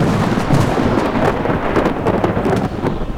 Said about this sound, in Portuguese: E passado alguns dias, o céu ficou escuro, preto bem preto, e uma tempestade se formava com ventos que começaram a soprar bem forte, cada vez mais forte. Raios, trovões,